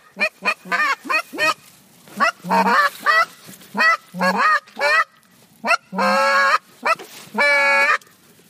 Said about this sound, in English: about 100 geese flying in a V right in front of us. And they're heading this way. It's about to get real.